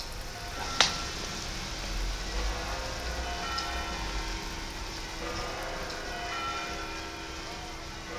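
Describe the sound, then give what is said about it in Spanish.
Steady rain hisses across the square beside the cathedral in Santiago de Compostela, with one sharp tap early on and faint, sustained bell-like tones ringing softly beneath the downpour. “Santiago Compostela, la plaza al lado de la catedral, eh, llueve.”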